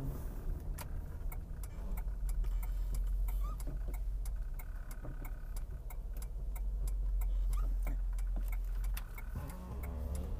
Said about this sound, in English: I'm yeah, just driving over to the gym, skipping the traffic. Uh it's almost 1:30 on Friday afternoon, but this is my attempt to kind of whip myself into at least somewhat better shape.